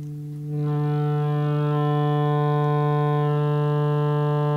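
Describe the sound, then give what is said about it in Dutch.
A steady, buzzy synthesizer oscillator tone holds one low pitch, rich in even overtones, swelling in slightly after half a second and then sustaining unchanged and fairly loud with no voices. “Dus dat is de pure oscillator dat we nu horen.”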